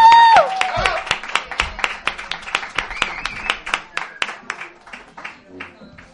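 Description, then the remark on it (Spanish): Audience applause for three people, a steady run of sharp, distinct claps in a quick regular rhythm that keeps going for several seconds and gradually eases off toward the end. “aplauso para”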